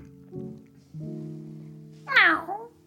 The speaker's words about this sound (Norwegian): Noen ganger så lurer jeg på hva dere katter prøver å si, men alt jeg hører, er bare mjauing, selvfølgelig.